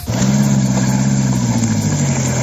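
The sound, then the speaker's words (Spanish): A vehicle engine runs loudly and steadily during a vehicle rescue in snow in Navarra, a low droning hum with a slight revving rise, over a constant rushing noise and no voices. “que ha provocado además algunos rescates de vehículos en Navarra como este.”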